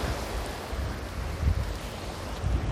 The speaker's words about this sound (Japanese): 八丈島は底土港よりお送りしています。いい感じに波の音が入ってくれるといいんですが